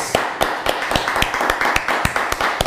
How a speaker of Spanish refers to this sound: Un fuerte aplauso a todas las naciones.